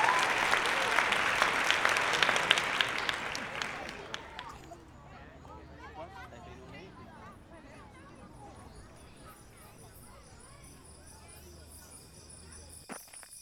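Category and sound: crowd, audience applause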